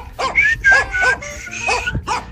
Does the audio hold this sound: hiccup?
no